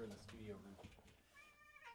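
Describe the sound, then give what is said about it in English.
A kitten meows in a couple of thin, high-pitched cries, the last one drawn out and wavering, with a person's voice briefly audible at the start. “Oh, we got a kitten in here. Hello, kitty.”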